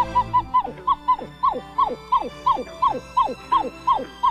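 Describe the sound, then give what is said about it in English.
A pied-billed grebe (Podilymbus podiceps) gives a wailing call: about a dozen loud, nasal notes in a steady series, each one dropping sharply in pitch, with no talking. “It has a couple of vocalizations. This wail”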